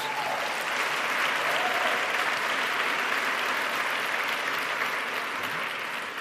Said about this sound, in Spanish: Uh, dale un aplauso a Jesús.